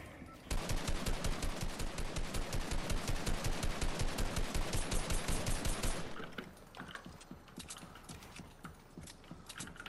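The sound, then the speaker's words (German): A sustained burst of rapid automatic gunfire from a video game, loud, runs for about five seconds, then gives way to quieter scattered clicks and shots. “Ich hab, ich hab nicht mal gesehen, ob du geschossen, wann du geschossen hast.”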